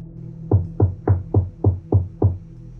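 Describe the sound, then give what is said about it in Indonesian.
Seven heavy, hollow knocks on the front door of a house at a steady, unhurried pace, each a dull low thud with a short decay, with no talking. “Suara ketokan itu masih tetap terdengar semakin dekat aku ke arah pintu”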